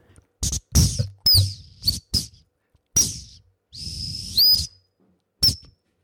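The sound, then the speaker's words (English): A plastic T12 tin whistle with bits broken off, sounding only when blown loudly, plays a short tune in quick, breathy, clipped notes with brief gaps between them, fairly loud, with no one talking. “I don't have an ad break, I just have me and my whistle, my trusty T12, on which I'm going to play you a tune.”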